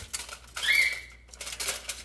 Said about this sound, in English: He's literally a baby bird, and this is how he acts. Every time he sees somebody, he just starts chirping, chirping, chirping, chirping, chirping, chirping, chirping. chirping.